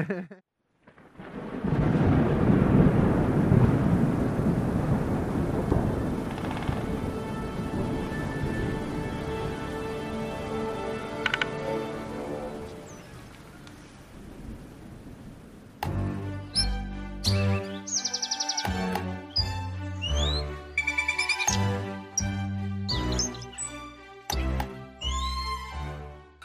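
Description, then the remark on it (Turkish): A waterfall roars in a steady, full rush in the early morning before sunrise, heard from a camp set up in a stream bed, with faint bird calls over it. The water gradually fades as tonal, music-like sounds take over for the rest. “Şelale olsun dedik ve sabahın erken saatlerinde daha güneş kendini göstermemişken geldik ve aslında yerel otoritelerin bizi hep uyardığı bir hatayı yaptık.”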